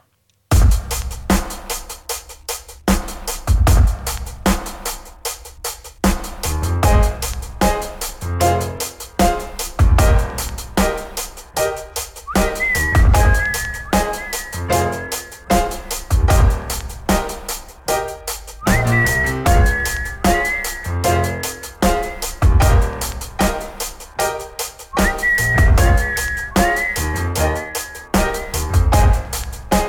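A band plays a song from 2014 with an R&B singer over a steady, thumping beat, with a bright, high melodic line returning in repeated phrases throughout.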